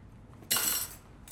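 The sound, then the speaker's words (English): A bright clatter of dishes and cutlery being washed, lasting under half a second, followed by a brief lull and the start of another clink, with no one speaking. “Can I wash dishes or something? Nah, we got the best dishwashers in the world.”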